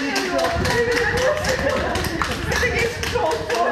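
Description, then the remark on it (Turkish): Steady applause as health workers see off 20 people leaving hospital after recovering from coronavirus treatment in Erzurum, Turkey; dense overlapping claps with voices murmuring underneath throughout. “Erzurum'da koronavirüs tedavisinin ardından iyileşen 20 kişi alkışlarla ayrıldı hastaneden.”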